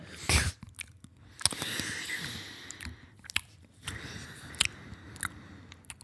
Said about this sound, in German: Das ist, ähm, ich glaube, ich hab's, ich glaube, ich weiß es. Das ist ähm, Funny Frisch Sour Cream Chips.